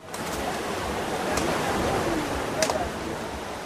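Steady wash of Black Sea waves on a sandy beach near Odessa, Ukraine, at 9 a.m. on a hot, sunny mid-August day near 30 °C, a continuous broad hiss of surf with gentle swells and a couple of brighter splashes, moderately loud and unbroken.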